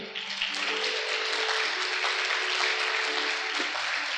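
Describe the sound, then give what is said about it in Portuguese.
A crowd claps steadily throughout, applauding God, a dense, continuous wash of applause with a faint sustained tone underneath and no one speaking. “Você pode aplaudir aquele que é insondável?”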